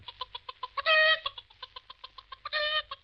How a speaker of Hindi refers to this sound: क्या मुर्गी हाँ पकड़ लाओ मुर्गी हाँ ये तो मेरे बाएं हाथ का काम है अभी पकड़ता हूँ